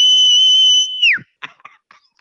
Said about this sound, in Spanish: Ahora, eh, dinos cómo chiflabas cuando metías un gol.